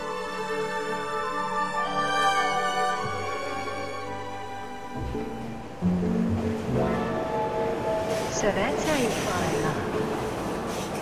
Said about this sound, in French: Le métro aérien de Chicago, avec ses fracas, les planches en bois qui se mélangent aux boulons, qui se mélangent aux poutrelles, sous la poussée de ces wagons qui arrivent à moitié déglingués, qui font tout frémir,